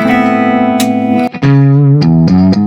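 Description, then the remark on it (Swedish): A Fender-style electric guitar amp tone: loud, bright sustained notes that ring out, then step down through a few lower chords with short pick attacks, no voices. “Så har vi den där Fender-aktiga.”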